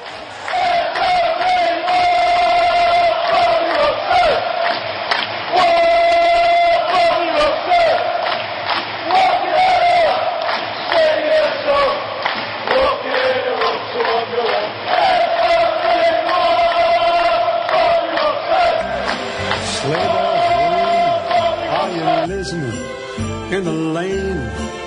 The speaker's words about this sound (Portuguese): Vamos ouvir então a torcida cantando para Bob Robinson